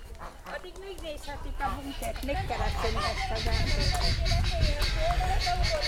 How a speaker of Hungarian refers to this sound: Na, ez a randa hangú, ez viszont a gyöngytyúk, az biztos.